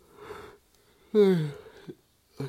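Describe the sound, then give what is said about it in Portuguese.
A drawn-out yawn: a breathy inhale, then a loud voiced groan sliding downward in pitch before fading out, with a short breathy sound trailing at the end. “Eu tô bocejando aqui, desculpa.”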